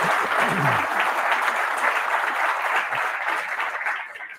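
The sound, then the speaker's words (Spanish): Sustained applause from an audience, a dense crackle of many hands clapping at once, steady and fairly loud, tapering slightly at the very end with no voices. “con este aplauso damos por comienzo ahora sí a Política para Adultos”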